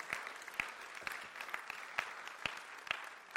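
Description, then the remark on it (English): A crowd at a morning church service applauds steadily in celebration of those who prayed a prayer, dense overlapping clapping with a few sharper individual claps standing out roughly every half second. No voices are heard. “Can we give a round of applause, a celebration for all those who prayed that prayer this morning?”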